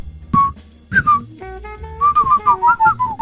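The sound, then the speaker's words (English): Someone whistles a short, lilting tune with clear, sliding notes in quick phrases, fairly loud, with no talking over it. “Oh, we've had church bells and whistling.”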